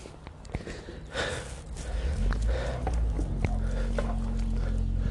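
A few clicks and rustles, then a low rumble builds about two seconds in and settles into a steady engine idle, like a car starting up.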